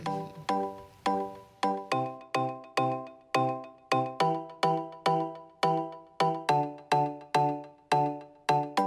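A music track made the previous year by a festival's DJ: a steady, bright melody of plucked, bell-like synth notes repeating in a quick, even rhythm, with no voices over it.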